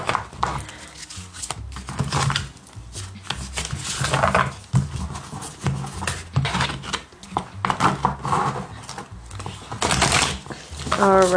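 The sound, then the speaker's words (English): A deck of tarot cards riffles and shuffles in brisk, papery bursts, with a voice murmuring faintly underneath and a few soft taps between the shuffles. “Let's get two shuffles.”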